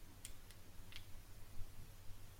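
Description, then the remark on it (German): A few soft, quick clicks from a smartphone's volume button snapping a selfie, three taps close together in the first second, then only a low steady background hum. “Ihr hört Jane ein Selfie machen.”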